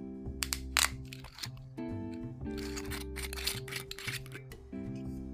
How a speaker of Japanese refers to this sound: そっちいい音したねそうね今あのちょうどね新しい赤ワインを開けたのでいい音がしました